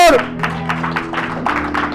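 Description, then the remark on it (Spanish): A church audience applauds the Lord with loud, steady rhythmic clapping that continues throughout, layered over a low sustained musical drone. “Pueden aplaudir al Señor.”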